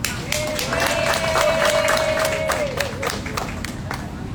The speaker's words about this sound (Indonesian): Yuk kita tepuk tangan untuk Bapak William Wongso.